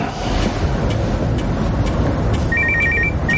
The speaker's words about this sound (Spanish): El jefe va hacia la cocina y el móvil de Boris suena en el bolsillo de su pantalón vaquero.